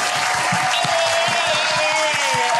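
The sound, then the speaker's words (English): A steady burst of applause from a crowd, dense and continuous clapping throughout, fairly loud, with a faint higher tone or cheer running beneath the claps. “Get some applause for yourself.”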